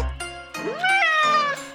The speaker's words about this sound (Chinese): 怎么是一只猫啊？哈！听你这口气，怎啦？瞧不起猫吗？我可是山猫啊，不是一般的猫哦。